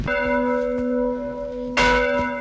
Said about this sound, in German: hier in Benzin und in einem etwas älteren Glockenturm mit einer Leiter und auch einem Seil, um die Glocke zum Schwingen zu bringen. Ich versuche es mal.